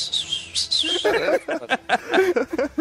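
Small birds chirp in quick, high, bright bursts at the start. Then voices talk over the softer chirping, which carries on faintly in the background.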